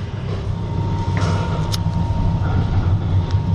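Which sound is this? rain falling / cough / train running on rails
train running on rails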